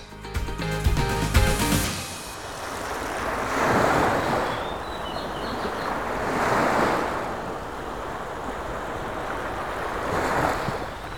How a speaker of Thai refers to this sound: ว่ากันว่า เสียงคลื่นที่กระทบฝั่งจะแตกต่างกันออกไปในแต่ละช่วงเวลาและบริเวณที่คลื่นพัดมากระทบ